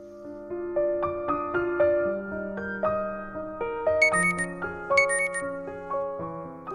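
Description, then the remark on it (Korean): A phone alarm, set with a reminder message about preparing for tomorrow's meeting, rings out as a bright electronic melody, its notes stepping steadily up and down, with sparkling high chimes joining midway. It plays continuously, with no voices. “아, 아 알람이구나.”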